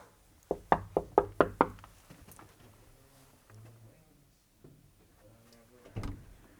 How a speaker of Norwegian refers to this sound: Jeg skal banke på døra nå, skal jeg høre om han har lyst til å rime.